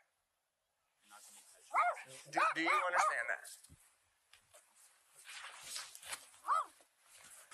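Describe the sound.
A dog barks in short, sharp bursts, a few quick yaps around the middle and another near the end, with people talking over and between the barks.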